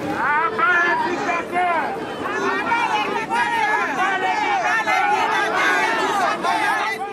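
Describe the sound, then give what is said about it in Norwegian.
A dense crowd of demonstrators shouts and chants together a few hundred metres from the UN building, opposite where world leaders are driven in, many overlapping raised voices forming a loud, continuous roar of protest with rising and falling cries throughout. “Noen hundre meter fra FN-bygget, og på motsatt side av der verdenslederne kjøres inn, står demonstrantene.”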